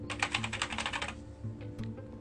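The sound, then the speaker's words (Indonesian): A quick burst of computer keyboard typing at night, coming from a PC in the last booth at the end, with rapid, closely spaced key clicks for about a second, then a few sparse, quieter clicks over a low steady hum. “ternyata waktu malam kita begadang kita semua main game semua pun mendengar hal yang sama bunyi keyboard”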